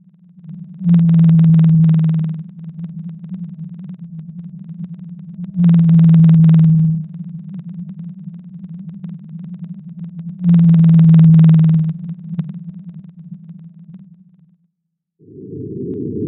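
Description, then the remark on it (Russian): Song of whales from the Pacific Ocean: a deep, steady low moan runs throughout, swelling into three louder, drawn-out calls spaced about five seconds apart, with no voices present. “А так поют киты из Тихого океана.”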